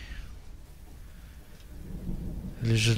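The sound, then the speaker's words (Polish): A low rumble builds steadily before a loud, sharp crack of thunder bursts in near the end, powerful, with what sounds like rain hissing underneath, as a storm begins. “Grzmot, jaki się rozlega, jest najgłośniejszym grzmotem, jaki kiedykolwiek słyszeliście.”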